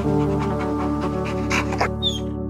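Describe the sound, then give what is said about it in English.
A voice imitates a small dog's stressed panting: a quick run of short, rapid breaths, fairly loud, with a couple of sharper breathy huffs near the end. “Frankie was doing that, that stress panting, you know, where they take really short breaths”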